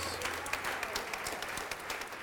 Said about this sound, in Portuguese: Então vem aqui para frente e vamos aplaudir ao nome de Jesus.